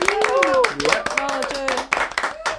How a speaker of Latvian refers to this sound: Aplausi uzvarētājiem!